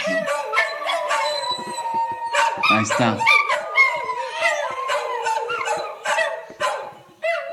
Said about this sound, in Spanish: O sea, y sí, el coro son, de los perros cantores. Son las cuatro al mismo tiempo, siempre también. O sea, siempre, siempre lo hacen así. Entonces, este. Eh, pero es, su manera de comunicarse